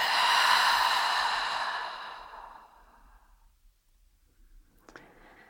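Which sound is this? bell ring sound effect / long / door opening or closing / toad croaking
long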